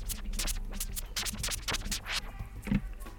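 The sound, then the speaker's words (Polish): A rapid series of record scratches made by a DJ demonstrating scratching on a turntable, back-and-forth swishing bursts that sweep up and down in pitch over a steady low hum, with no one talking. “E, dobrze, co to jest właśnie ten scratch? W jaki sposób to się dzieje? E, no właśnie, to co teraz nam proponujesz, demonstrujesz.”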